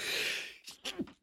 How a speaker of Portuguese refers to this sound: Vou espirrar.